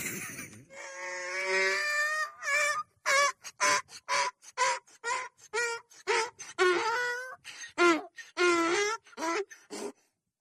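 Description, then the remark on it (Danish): A donkey brays loudly, starting with one long drawn-out call and then breaking into a rapid series of rhythmic hee-haw honks that seesaw back and forth until it stops. “Prøv lige at høre, hvad det her æsel siger.”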